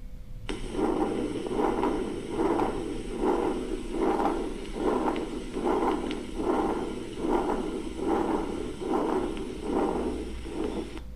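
A continuous, rumbling, machinery-like heart murmur from a patent ductus arteriosus that swells and fades with each heartbeat, about fourteen regular pulses with no gaps between them, steady with no voices.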